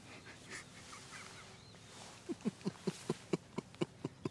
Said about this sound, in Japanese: しばらくもうねこの小鳥のさえずりとかもちょっと黙ってちょっと聞いてもらいましょうかリスナーさんにこの小鳥のさえずり、ね、ちょっと黙っててくださいね。